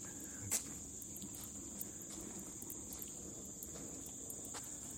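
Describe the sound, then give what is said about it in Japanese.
A dense, steady chorus of insects chirps outdoors at night in a park beside a vacant lot, a continuous high trill that never pauses. It is fairly soft, with no voices, and a brief faint knock comes early on. “めちゃくちゃ虫の声が多分聞こえてると思いますね。”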